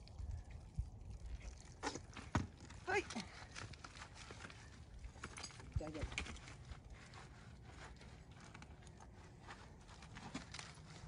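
Horse hooves clip-clop irregularly on hard ground, mixed with shuffling movement and a brief vocal sound, over a steady background murmur.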